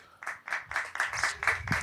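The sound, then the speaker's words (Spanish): A live show audience applauds when asked to clap, in a steady rhythmic pattern, about four bright, crisp claps per second. The sound is fairly soft, with no voices over it. “Queremos saber quiénes de ustedes, primero que nada, quiénes de ustedes vinieron por el podcast. Por aplausos, por favor.”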